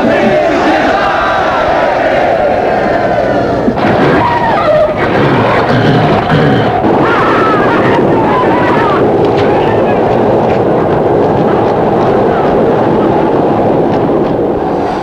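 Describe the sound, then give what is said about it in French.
An ancient chariot horse race with a huge crowd roaring and shouting continuously, loud, over a dense rumble of hooves and wheels that never lets up. “Alors, on vient de l'entendre, les courses de chevaux existaient bien avant la naissance du tiercé.”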